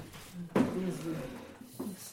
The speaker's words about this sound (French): On ouvre d'abord son immense frigo, couvert de magnettes. Alors tu ouvres, et c'est juste, tout juste si tu peux refermer la porte, tellement il y a de choses.